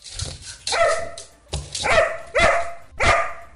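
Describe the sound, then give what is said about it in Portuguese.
A dog barks loudly, four sharp barks spaced in a steady rhythm, each with a bright harmonic ring, and no other sounds or voices around them. “Fechou, Cachorro, fechou.”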